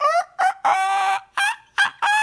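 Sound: imitated rooster crowing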